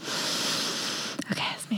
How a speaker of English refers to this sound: I just really like that sound. I'm sniffing the wine, not the microphone.